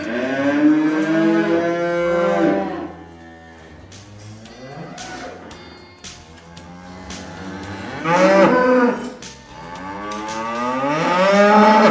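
A cow moos loudly several times, long drawn-out bellows with rising and falling pitch, separated by short quieter pauses, with no talking.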